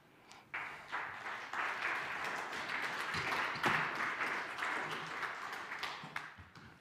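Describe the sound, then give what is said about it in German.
An audience applauds steadily for several seconds to welcome two guests, the speaker's parents, onto the stage, a dense wash of many hands clapping at an even, moderate level, swelling briefly near the middle before tapering off at the end. “Darum lasse ich ihnen vielleicht einen kleinen Applaus geben und sie auf der Bühne willkommen heißen.”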